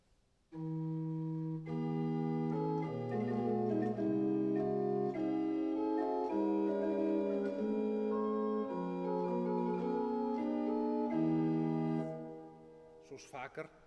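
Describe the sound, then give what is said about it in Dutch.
The opening of Johann Sebastian Bach's organ chorale prelude Schmücke dich, o liebe Seele from the Leipzig Chorales: a slow, sustained organ piece with layered held chords and an ornamented melody line, played steadily for about eleven seconds before fading, with a brief noisy burst at the very end. “De moeite van, van het beluisteren waard, Schmucke die goede zelen van Johann Sebastian Bach uit de Leipziger Korelen voor orgel.”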